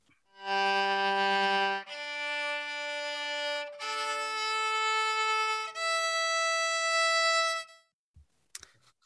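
A violin's strings being tuned: long bowed notes that shift pitch in a few steps, sometimes two strings at once, fairly loud, followed by a couple of faint clicks.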